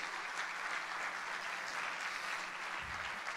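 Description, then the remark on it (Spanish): An audience applauds for God steadily, a dense wash of many hands clapping at once, sustained and even throughout with no voices standing out. “Déselo fuerte porque es para Dios.”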